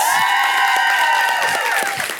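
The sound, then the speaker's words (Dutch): A crowd applauds loudly and steadily for the winner of the evening at a show, dense clapping filling the whole stretch, with a faint sustained tone running underneath and no voices standing out. “Maar ik wil een heel hard applaus voor de enige echte winnaar van de avond.”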